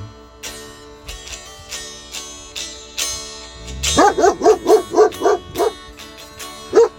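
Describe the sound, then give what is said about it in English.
A dog named King barks in a quick, evenly spaced run of about eight loud, mid-pitched barks, then one more after a short pause, with steady tones humming underneath and scattered clicks before. “His name is King with barking”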